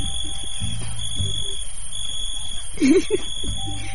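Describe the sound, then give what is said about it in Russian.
Crickets chirping in a steady, continuous high-pitched trill that runs unbroken for the whole stretch, with a faint low murmur and a brief voice-like sound underneath. “Здесь должны быть сверчки.”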